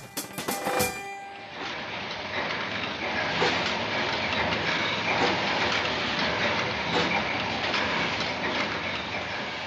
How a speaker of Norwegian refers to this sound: Lyden av oljeboring på en av plattformene våre ute i Nordsjøen. En internasjonal arbeidsplass med flere tungemål enn norsk.